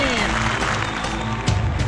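A steady wash of applause welcoming a daily champion, a vocal teacher of the Shenyang Spring Voice Choir from the Vanke Xinlicheng community, fills the whole two seconds, dense and fairly loud, with a faint low tonal hum underneath and a brief swell near the end.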